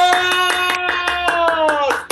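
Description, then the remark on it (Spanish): Quick, steady clapping, about ten sharp claps in two seconds, over a sustained bright tone that slides slightly lower and ends abruptly. No one speaks. The applause greets Copiando y Botaneando, the first sponsor of 2021. “¡Aplausos!”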